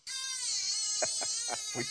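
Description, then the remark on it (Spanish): A baby wails loudly and steadily, a high, strained cry held across the whole moment, with a few short bursts of adult voice breaking in underneath toward the end. “Calla, calla, calla el nene.”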